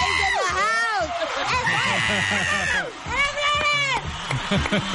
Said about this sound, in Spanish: Ay, me estoy ambientando aquí con los gritos y todo.